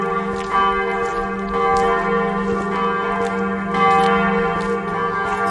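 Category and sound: signal or alarm, church bells ringing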